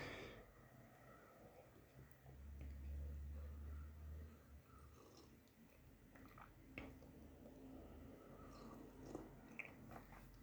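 Quiet first sips of very hot turmeric tea mixed with pepper: soft slurps and small wet mouth sounds over a low background rumble, with no talking.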